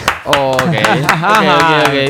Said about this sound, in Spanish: Ah, bien, bien aplaudan, eh, no me, dejen de aplaudir.